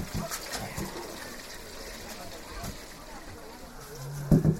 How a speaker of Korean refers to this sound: 아, 그래. 잠깐만. 물로 좀 헹궈줄게.